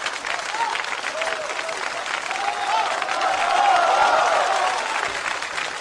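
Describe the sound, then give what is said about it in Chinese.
Audience applause at the live radio show Haiyang Live Show: a dense, steady wash of many hands clapping with some crowd voices mixed in, swelling louder past the middle before easing slightly toward the end. “首先，谢谢大家盲目的掌声啊！”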